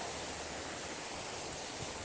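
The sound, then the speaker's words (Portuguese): A steady, even rush of ocean surf washing onto a beach of dark, wet sand at the tide line, a continuous hiss with no distinct individual breakers, fairly quiet and with no voices. “Chegamos na areia tocada pela maré.”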